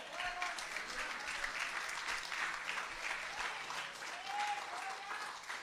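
Sustained applause from a large gathering, a dense, even wash of many hands clapping for several seconds, with a few faint shouts or whistles rising briefly above it.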